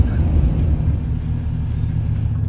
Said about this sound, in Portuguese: As três limousines param, emparelhadas entre elas. As portas se abrem.